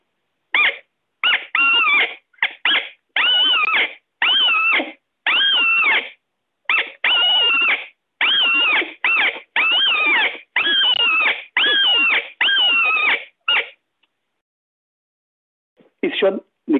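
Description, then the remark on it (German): A reed caller (Blattinstrument) imitating a deer's distress cry sounds a rapid series of short, nasal, bleating cries that waver up and down in pitch. After a brief pause, two more cries follow. No one speaks. “Da bräuchte ich jetzt ein Blattinstrument.”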